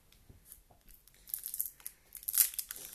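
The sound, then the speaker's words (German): Crinkling and ripping as a foil Pokémon card pack wrapper is torn open, a few scratchy bursts building to a sharp tear near the end, with no voices. “Ich mach's für dich. Pokémon.”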